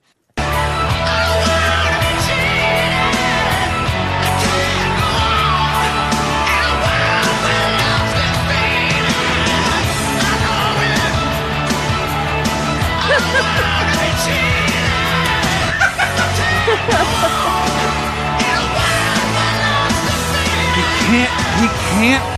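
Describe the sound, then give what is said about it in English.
A man screams at the top of his lungs in a song, his strained voice sustained and loud over dense, driving music that never lets up for over twenty seconds. “He screams like this for another fifty seconds.”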